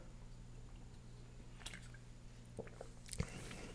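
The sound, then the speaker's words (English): Quiet mouth sounds of someone drinking water, with a few soft sips and wet swallows scattered over a low steady hum, without any talking. “Excuse me, I gotta get some water.”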